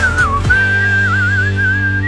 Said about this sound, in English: Hey, there's your whistle part.